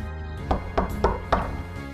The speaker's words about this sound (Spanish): El lobo, más descansado, llamó a la puerta y la abuela preguntó.